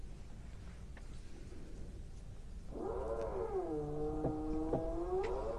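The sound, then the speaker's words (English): Partway through, a loud, steady mechanical whine of drilling from works in the building starts up and runs for a few seconds, its pitch dipping and rising slightly over a low background hum. “And we apologize for the drilling noise in the background, but uh, it's amazing what goes on in this building.”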